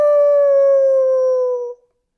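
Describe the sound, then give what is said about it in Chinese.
A person voicing the old wolf in a told story imitates a wolf howl: one loud, sustained vocal tone held at a steady mid pitch, drifting slightly lower for nearly two seconds before stopping abruptly. “老狼大发牢骚：“ 小火腿，等着瞧！待会儿把你们一口全吃掉！”嗷！”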